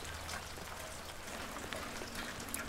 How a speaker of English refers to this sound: The rain starts really pouring down on me and Jill, but she doesn't head for cover.